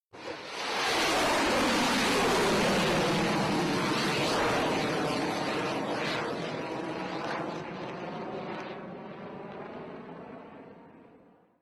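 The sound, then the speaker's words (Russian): An intro sequence of loud, sustained whooshing roar, like a jet passing, with sweeping phaser-like tones. It swells in quickly, holds steady, then gradually fades out. No voices are heard. “А, значит, пока была заставка, успели поздороваться Voice of the Truth.”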